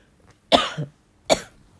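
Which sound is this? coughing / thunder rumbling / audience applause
coughing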